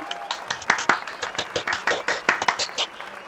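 A short burst of applause: quick, slightly uneven hand claps from a few people nearby, sharp and moderately loud, lasting about three seconds with no talking.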